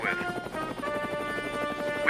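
A helicopter's rotor chops in a steady rapid rhythm beneath a sustained engine whine, moderately loud, with a brief brighter burst right at the end.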